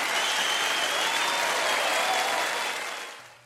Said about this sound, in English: Okay, so the applause you're hearing is, is, is fake, y'all. It's not real. But we did perform a live show on April 15th in front of a live audience, but it was a Zoom mm-hmm. audience.